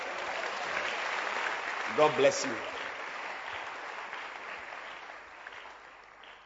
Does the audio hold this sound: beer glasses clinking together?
no